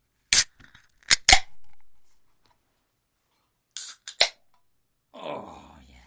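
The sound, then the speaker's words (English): A can of Arizona Arnold Palmer, a non-alcoholic half iced tea, half lemonade drink, being cracked open: a few sharp metallic clicks and pops in two quick bursts, then a soft fizzing hiss at the end, with no talking. “before we get too far into it, let's crack open.”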